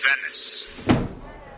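The door of a bar in Venice creaks open as it is pulled, with a high, squeaky whine, then lands with a dull thump, fairly clear.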